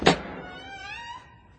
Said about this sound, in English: At the far end of the attic, Granddad pulled a sheet down from a wall to reveal a big metal door. After you, Sid, he said. Sid turned the handle, cluck, and gave the heavy door a push.